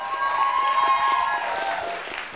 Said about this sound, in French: Donc je vous demande de l'applaudir parce que je l'ai appelé ce matin à 10h pour qu'il remplace, il a fait pas de soucis.